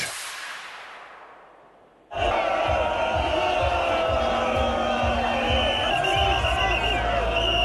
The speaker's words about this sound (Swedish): Det här förstår ni, det här är jublande människor som välkomnar sitt, vinnarlag, sitt vinnarlandslag hem. Nyligen avgjordes den 30 upplagan av Afrikanska mästerskapen i fotboll för herrar.